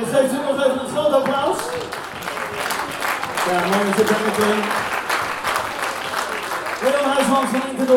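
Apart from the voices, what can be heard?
audience applause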